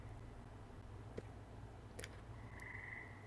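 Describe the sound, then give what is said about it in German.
Faint, scattered frog croaks over a low steady hum, a few short clicking calls followed by a brief buzzy trill, quiet with no one talking. “Ich glaube, damit kommt man wieder runter, ohne dass man durch das Treppenhaus muss, wo sich ja jetzt auch diese Froschgeräusche befinden.”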